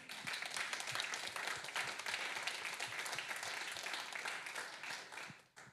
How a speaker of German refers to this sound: Vielen, vielen Dank, ähm, dass du das mit uns geteilt hast. Können wir mal für klatschen, finde ich.